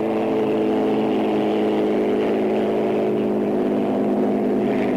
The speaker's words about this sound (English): we now have a heat entirely comprised of Rolls-Royce engines